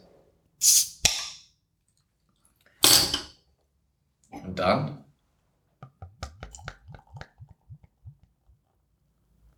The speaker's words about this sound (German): dieses Gluckern, ja? Das ist toll. Und dieses Gluckern äh, und dieses Zischen, äh, das ist natürlich äh, sofort mit Frische und mit kühlen, ah, herrlich, mit kühlem Bier verbunden, das jetzt so in, ins Glas ähm, rauscht sozusagen.